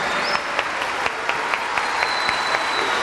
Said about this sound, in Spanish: Fuerte aplauso para nuestra Orquesta Filarmónica de la UNAM y para nuestros solistas del pájaro Q nuestro director, el maestro Luis Manuel Sánchez.